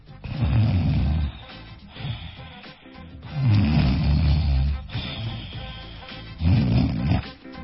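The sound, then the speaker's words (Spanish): A person imitates loud snoring, three long rasping, rumbling breaths with quieter gaps between them. “Ahora, una cosa es roncar así”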